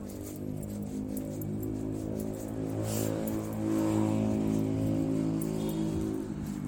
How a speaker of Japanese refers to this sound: ちょっとまたあの大きいねあの通りに入ってるので音がうるさいのかと思います